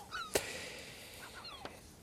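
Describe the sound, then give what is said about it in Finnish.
A herring gull calls in spring, a few short, faint yelping cries over a soft background hiss, punctuated by a couple of sharp clicks. “Ja ennen kuin otamme ensimmäisen soittajan, niin mainittakoon, että tuo keväinen ääni tuossa taustalla on harmaa lokki, joka siinä kaklattaa mukavasti ja tuo mulle ainakin vahvasti kevään, vahvan tunteen.”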